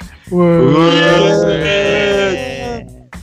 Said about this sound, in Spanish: vale, eh, se nota que si entro de segundas gritáis desganaos. Me lo apunto para la próxima.